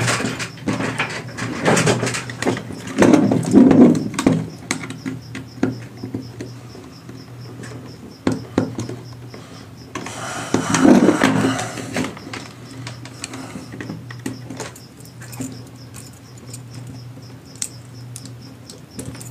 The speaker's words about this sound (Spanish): ¿Cuáles grillos? Es estática, no grillos. A ver, déjenme mover el cable a ver si en una de esas.